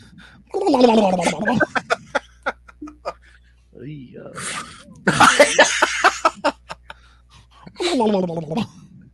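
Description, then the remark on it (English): A voice imitates the spinning prize wheel from the game show The Price Is Right, with rapid clicking ticks that come in bursts, surrounded by loud bouts of laughter. “it's, it's, it's the same sound that the fucking wheel makes when you spin it.”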